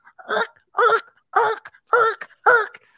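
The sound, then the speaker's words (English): A voice imitates the friction of squeaky leather pants rubbing, making five strained, whiny squeals in a steady rhythm, each about half a second long, fairly loud with short silences between. “And that was just the sound of that friction happening downstairs.”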